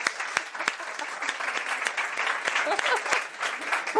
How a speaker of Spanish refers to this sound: un aplauso